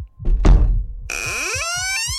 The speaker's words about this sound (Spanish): Así estuvieron un buen rato, siguiendo los ruidos, intentando descubrir qué era lo que provocaba esos golpes, pero finalmente se dieron por vencido.